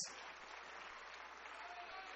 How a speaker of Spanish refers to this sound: Dele un aplauso a la gloria de Dios.